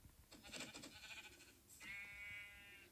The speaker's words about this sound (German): Oh, noch ein Schaf.